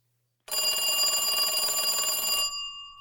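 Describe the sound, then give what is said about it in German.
A phone rings for an incoming WhatsApp call with a bright, buzzing electronic ringtone that sounds steadily for about two seconds, then stops abruptly with a faint ringing tail. No one speaks over it. “Ein Klaus ruft über WhatsApp an.”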